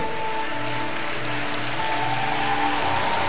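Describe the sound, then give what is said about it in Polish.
A church audience applauds steadily for the decision of people coming forward, a dense, continuous wash of clapping that holds an even loudness throughout, with faint sustained tones humming underneath. “Śmiało, zabijmy brawo dla tą decyzję.”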